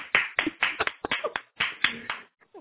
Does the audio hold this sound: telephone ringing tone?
no